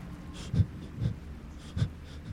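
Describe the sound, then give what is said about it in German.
A voice mimics the quick, panicked breathing of a badly burned, injured body lying on the ground in a tabletop role-playing game: four sharp, raspy gasps spaced roughly half a second apart, fairly quiet, with no words spoken. “Der Körper, der vor dir liegt, atmet hektisch.”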